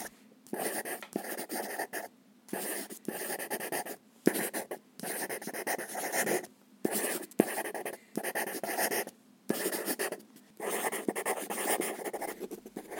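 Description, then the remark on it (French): A graphite pencil scratches steadily across the paper of an A5 notebook in continuous bursts, broken by brief pauses as if between words or lines, with no voices; someone is writing three pages of automatic writing. “Installer un cahier format A5 et un crayon de papier à portée de main depuis mon lit pour m'en saisir alors que je suis encore dans un demi-sommeil et de là écrire trois pages en écriture automatique, ce qui vient, sans réfléchir.”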